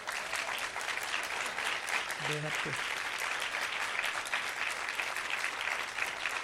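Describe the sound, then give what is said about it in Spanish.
An audience breaks into sustained applause for their pastor, a dense, steady clatter of many hands clapping, with a brief voice cutting through the noise partway in. “Bueno, mi mamá, ¿y ustedes no aplauden a su pastor?”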